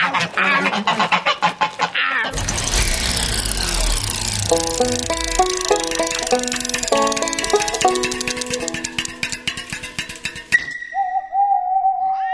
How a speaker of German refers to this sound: Jetzt geht mal zur Seite, ihr Gänse. Und lasst meine Hose in Ruhe.